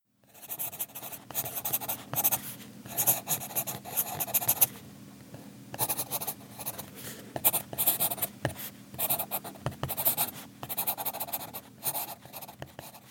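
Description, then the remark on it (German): Pencil scratching across paper in quick, irregular bursts of raspy strokes with brief pauses, a breathy scraping texture that almost resembles panting or sniffing. “klingt wie ein schnuffelnder Hund, ist aber ein Bleistift.”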